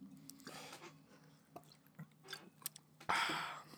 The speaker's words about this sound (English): I usually don't condone drinking or eating on the podcast, but uh, today's different.